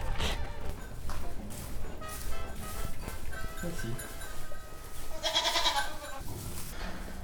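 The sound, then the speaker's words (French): Several goats bleat in overlapping, wavering cries, with a busy background and people talking intermittently. “Euh, bah, les chèvres et brebis, en fait, c'est, j'allais dire, c'est pareil que pour les vaches, sauf que c'est des petits ruminants.”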